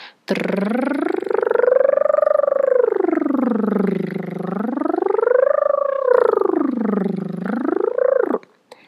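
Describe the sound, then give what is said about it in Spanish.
A single voice holds a rolled R tongue trill as a vocal warm-up exercise for about eight seconds, its pitch sweeping smoothly up and down in slow waves. It is steady and fairly loud, with no talking. “Notarás que el sonido es como una TR continua. Controla tu respiración y mantén el sonido uniforme.”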